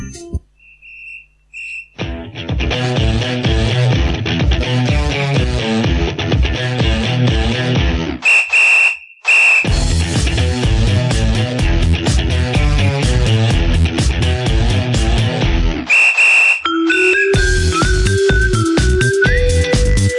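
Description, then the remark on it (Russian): An upbeat Russian pop-rock song plays loud, with a driving steady beat and dense instrumentation. A high whistle-like tone returns between sections, and the arrangement shifts near the end. “ребят, прервемся на первую музыкальную паузу. Играть у нас будет что-то такое бодрящее.”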